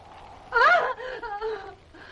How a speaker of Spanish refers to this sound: Al escuchar el grito de Juana, vuelve a la habitación.